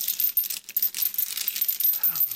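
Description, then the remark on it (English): Metal chains rattle and clink in a steady, bright jangle that continues for a couple of seconds, fairly loud, with no voices: the sound of a man in chains. “The chains rattled, and the rattling of the chains brought news of the Christian being attacked by Satan.”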